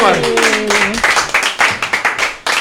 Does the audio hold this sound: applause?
yes